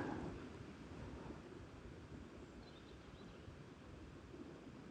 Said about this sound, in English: I stopped to listen to the sounds and the water down the far end and the little bit of water here and the birds. Birds are quieter today.